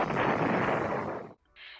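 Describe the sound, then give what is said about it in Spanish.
A rocket launch blast-off: a loud, dense roar that rumbles steadily for over a second, then cuts off abruptly, followed by a brief faint hiss. “5, 4, 3, 2, 1, fire.”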